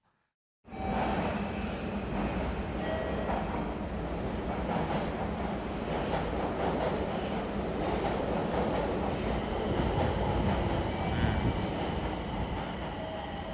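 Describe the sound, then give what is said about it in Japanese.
Subway station ambience at Nagoya Station on the Nagoya subway Higashiyama Line in Japan: a loud, steady roar of rumbling train noise and rushing air that starts abruptly and fills the space evenly throughout, with no voices. “名古屋地下鉄東山線名古屋駅の音”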